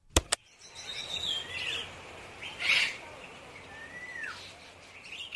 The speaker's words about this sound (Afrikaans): Kom ons luister na nog 'n geluid. Ek dink dis van voeltjies wat sing. Ja, dis 'n goeie idee. Dit behoort mooi en sag te wees.